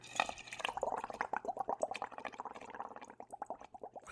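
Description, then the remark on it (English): A voice imitates a Keurig coffee machine brewing, producing a run of gurgling, bubbly sputters that sound like liquid dripping and filling a cup, with no words spoken. “I honestly was like, do you have a Keurig that you just fired up there”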